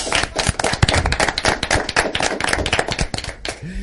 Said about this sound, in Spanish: a mucha gente más que tengo aquí a la espalda que como casi no veo, lo que voy a hacer es pedir un aplauso para ellos